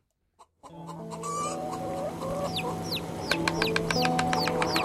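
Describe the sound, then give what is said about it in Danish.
A short, calm musical jingle introducing the radio segment 'Bouillonhjørnet', with steady melodic tones, overlaid with repeated clucking chicken sounds and chirpy calls that grow busier toward the end. No one speaks. “Ja, det er jo lidt mere roligt uh, jingle i forhold til det oplæg, vi lavede til jingle, kan man sige.”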